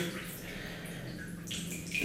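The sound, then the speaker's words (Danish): Bathwater sloshing and splashing softly as a person lowers their head under the water in a bath, a steady watery swirl with small drips and a slightly stronger splash near the end. “lagde hovedet så meget ned under vandet, at jeg kunne, og fik vand ind i ørerne, kunne høre min eget hjertebank eller rytme.”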